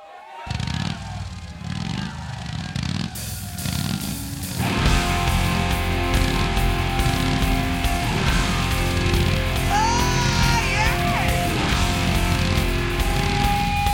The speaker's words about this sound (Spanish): Quiero creer que el sonido de, motocicleta estaba grabado, ¿eh? Quiero creer.